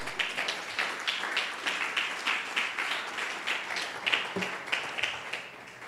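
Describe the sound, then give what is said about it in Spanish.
A crowd applauds the Lord during a prayer service, many hands clapping in a dense, continuous wash of sharp claps at moderate loudness, with no talking over it. “Dale un fuerte aplauso al Señor.”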